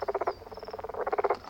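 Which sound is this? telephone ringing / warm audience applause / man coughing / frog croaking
frog croaking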